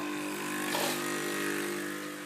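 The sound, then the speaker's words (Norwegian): A coffee machine runs with a steady, loud mechanical whir and hum, a continuous droning motor sound with a brief swell in intensity partway through, and no voices. “Nå har jeg satt i gang kaffemaskina.”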